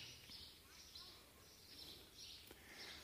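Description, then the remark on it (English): Birds chirp in a steady series of short, repeated bursts, soft, over a low, murmuring background hum. “How does that distinguish you from these birds?”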